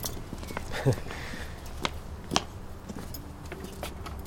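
A bunch of keys on a ring, including the key to the château, jingles in a few short, sparse metallic clinks against a quiet background.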